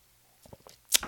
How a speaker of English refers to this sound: Okay. Let's do one more sip.